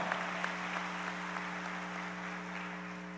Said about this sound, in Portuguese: Quantos aqui são livres? Levanta as mãos e aplauda ao Senhor bem forte.